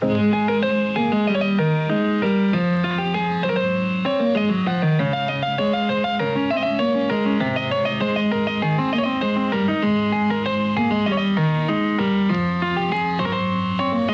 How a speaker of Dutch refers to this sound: En daarom schreef hij zelf een barokachtig stukje pianomuziek. En dat klonk zo.